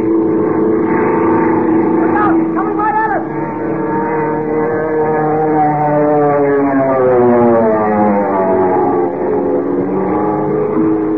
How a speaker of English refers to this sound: Motor roaring, wind screaming through the struts.